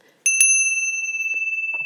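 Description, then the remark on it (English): A small bell used in a classroom is struck twice in quick succession, its bright metallic ring sustaining and slowly fading, clear, with a few faint soft sounds in the background. “so being respectful to other people as well i also try not to raise my voice in class and i have a little bell”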